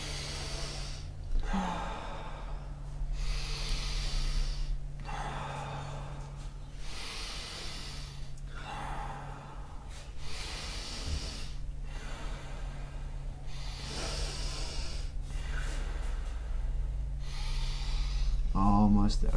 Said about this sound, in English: Breathing in. Keep it up halfway there. Getting oxygen in. Getting CO2 out.